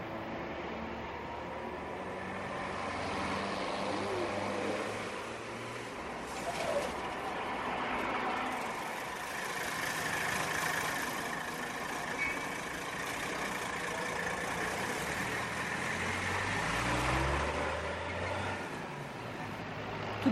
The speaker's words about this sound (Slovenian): ne da bi se zmenil za gledalce, vstopil v avtobus in se odpeljal.